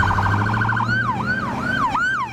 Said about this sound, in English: You can certainly hear them roaring down the street, but now you can actually feel some Winnipeg Fire Paramedic Service vehicles approaching. Here's what one of them sounds like. And here's what a regular siren sounds like.